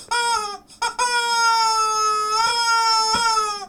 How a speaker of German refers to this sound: Ja, mehr so aus industrieller Fertigung, hat es gesagt. Aha. Äh, wie lebt's denn so, sich als Gummihuhn?